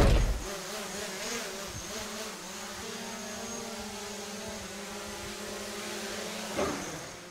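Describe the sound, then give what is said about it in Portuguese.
A camera drone's propellers spin up as it takes off into a steady, buzzing whine that holds for several seconds, with a slight surge near the end. “E hoje, drone. Pode subir o drone, Renan?”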